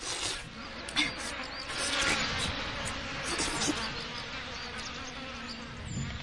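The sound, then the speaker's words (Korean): A steady, dense buzzing of a swarm of mayflies in a forest fills the scene, a continuous swarm drone with slight flutters and swells, no voices present. “우와, 어, 하, 루살이 뜨다. 어, 오늘 한번 배터지게 먹어보자.”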